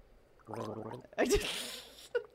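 A person gargles water, a throaty, bubbling hum lasting about half a second, followed by a louder, splashy, gurgling rush and a brief final sputter. No one speaks.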